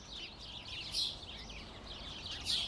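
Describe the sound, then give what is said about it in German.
A flock of sparrows chirps continuously from a street bush in Berlin in cold autumn, many overlapping high tweets forming a busy, steady chatter with a couple of louder bursts, over faint low background hum. “Diese Spatzenschar bevölkert im kalten Berliner Herbst einen Straßenbusch.”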